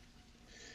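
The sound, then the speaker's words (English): A short, breathy wheeze from a person with a cold, an airy rasp of an inhale that grows slightly harsher toward the end, quiet, with no talking. “You hear me wheezing like that's what that noise is.”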